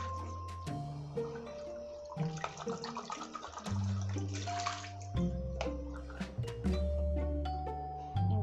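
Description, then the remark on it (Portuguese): Steady running tap water pours, with occasional clinks and knocks of dishes being handled and rinsed beneath it; no one speaks. “Acho que eu vou colocar água para ferver, porque eu já tô terminando a louça.”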